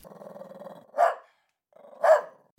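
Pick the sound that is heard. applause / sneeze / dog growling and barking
dog growling and barking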